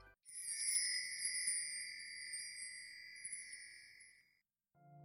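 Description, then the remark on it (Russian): Glass wind chimes stirred by the wind at the door of a coffee shop ring out in a bright, shimmering tone that hangs in the air for several seconds before fading, soft, with no voices. “звон ветра, поигравшего стеклянными побрякушками у дверей вашей любимой кофейни.”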